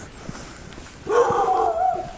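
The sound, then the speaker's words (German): A dog at a decorated half-timbered house barks loudly, a harsh, drawn-out vocal burst that starts halfway through and carries on to the end over a quiet outdoor background. “In einem putzigen, schönen Fachwerkhaus mit Verzierung und ein Hund, der uns fressen wird.”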